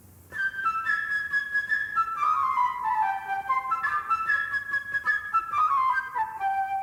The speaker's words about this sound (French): Par exemple, l'oiseau ami de Pierre. Ce sera la flûte légère et gazouillante.